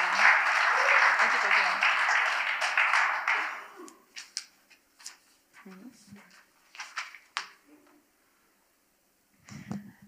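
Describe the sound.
An audience applauds again as a woman is invited up to speak, clapping steadily for about four seconds in a dense rush of many hands, then it tapers to a few scattered claps and quiet murmurs before a voice begins.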